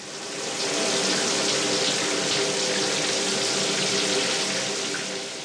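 Steady rushing ice-cold water sprays continuously from a shower, with a broad hiss that fades in, holds evenly, and tapers off at the end. No voices.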